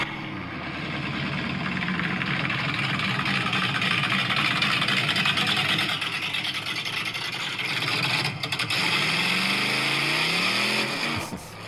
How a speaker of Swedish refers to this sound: Den där motorn har jag byggt alldeles själv. Det är fan sjukt.